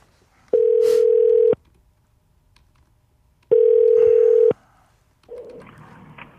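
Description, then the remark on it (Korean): Two long, steady electronic ringback tones of an outgoing challenge phone call, each about a second, separated by a pause, followed by a brief burst of line noise as the call connects. “도전의 전화 갑니다.”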